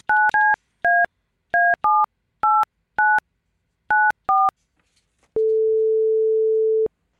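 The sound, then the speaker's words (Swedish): A quick series of about ten short touch-tone dialing beeps, each a crisp two-note chirp, followed by a single long steady tone as a call is placed. Clear and close, with no talking. “Ska vi slå en signal? Ja, men det gör vi.”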